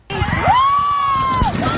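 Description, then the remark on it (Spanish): In Allegan City, Michigan, a child hit by a rocket screams. The high-pitched scream rises sharply, holds steady for about a second, then drops away, heard over a constant noisy background of crowd commotion. “También en Michigan, pero en Allegan City, varios niños gritaron horrorizados cuando fueron alcanzados por un cohete.”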